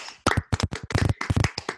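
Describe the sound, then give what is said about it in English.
A few hosts clap loudly right at their microphones, their sharp, uneven bursts of handclaps overlapping into a ragged, crackling patter for nearly two seconds, with no talking. “When we all clap Love with our you. mics, it sounds like fireworks.”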